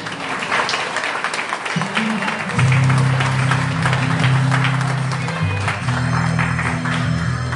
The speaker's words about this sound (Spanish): Aplausos.